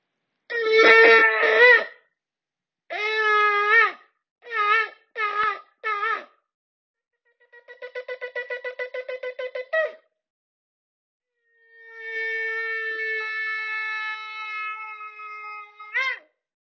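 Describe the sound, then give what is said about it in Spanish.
Shofar blasts ring out alone: a few mid-length horn calls, then a rapid run of short staccato notes, and finally one long sustained blast that rises sharply in pitch at the end. “toques del shofar entrar en tu corazón, despertarte, agitarte, movilizarte, para que podamos aprovechar este mes y que sea él significativo.”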